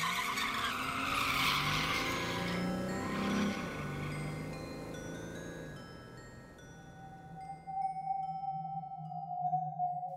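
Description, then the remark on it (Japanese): A taxi races off with loud, screeching tires, the squeal sweeping and wavering over a roaring engine for several seconds before settling into a steady high whine as it speeds away. “一気に車を走らせた”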